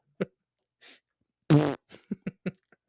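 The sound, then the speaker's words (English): A loud, wet, buzzy fart sound, apparently made by a voice, rips out in one sustained blast, then sputters into several short popping bursts. A few soft isolated pops come before it, with no talking. “probably a little bit more juicier than that.”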